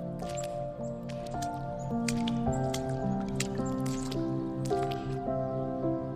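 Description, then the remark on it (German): A small young fox plays in puddles: irregular wet squishes and drippy splashes, moderately soft, over a steady, sustained musical tone in the background. “Du musst lauthals lachen, so komisch sieht es aus, wie der kleine Fuchs in den Pfützen spielt.”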